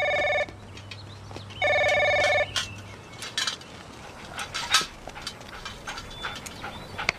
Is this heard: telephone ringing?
yes